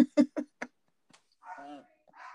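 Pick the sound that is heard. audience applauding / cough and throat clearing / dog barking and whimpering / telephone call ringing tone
dog barking and whimpering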